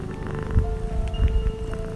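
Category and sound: animal, domestic cat purring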